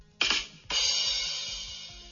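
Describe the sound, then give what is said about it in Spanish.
A comedic drum sting played by Google Assistant on an iPhone after telling a joke: two quick drum hits followed by a splashy cymbal crash that rings out and slowly fades, loud with no voices. “Y con tambores.”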